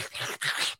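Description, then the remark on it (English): Two quick, hissy slurps from someone sipping a drink, back to back with a brief break between them, fairly loud and airy, with no talking. “Sorry for that slurping noise.”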